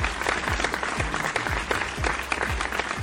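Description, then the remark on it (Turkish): Steady applause sound effect sent by the host on the show Olcayla Şamata: dense overlapping claps from a crowd fill the whole stretch at an even loudness, with a few sharper individual claps and low thumps popping out now and then. “Harika cevaplarınızı aktarmaya, küçük küçük yorumlar yapmaya, bolca alkış göndermeye devam ediyorum.”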